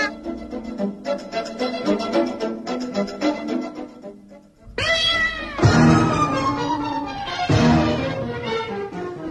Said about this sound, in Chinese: 猫一看到狗就变得好凶哦。 是啊，猫见到敌人的时候会把背拱起来，全身的毛也会竖起来。然后露出尖尖的牙齿和爪子，使自己看起来很凶恶。